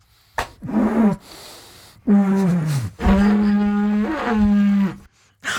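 A didgeridoo, a long, large wooden pipe with big holes at both ends, played to sound like a groan of pain: three loud, low droning blasts with sagging, wavering pitch, separated by brief pauses, with no talking.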